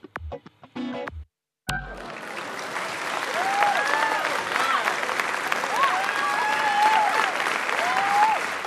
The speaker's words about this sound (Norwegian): Applaus for Språkteigens aktive, interesserte lyttere.